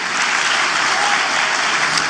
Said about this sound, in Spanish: Vamos, denle fuerte ese aplauso al Señor.